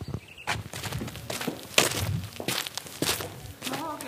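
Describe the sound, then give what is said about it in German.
Footsteps of a person walking in through an open side entrance, an irregular series of soft thuds and scuffs over about four seconds, with a sharper knock partway through and no talking. “Der Eingang an der Seite, der ist offen. Ich gehe einfach rein.”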